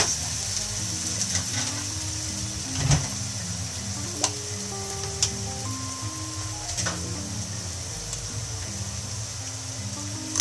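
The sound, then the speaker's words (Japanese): Ground meat sizzles steadily in a frying pan, a constant crackle with occasional sharp pops and faint scraping of a utensil stirring. No one speaks. “2日連続気づけばひき肉料理でしたさあこれで分かりますかねちょっと今日はやるつもりなかったんですけど音の違いを分かってほしくてやっちゃいました”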